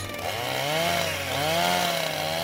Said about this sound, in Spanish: El horrible sonido de una sierra eléctrica.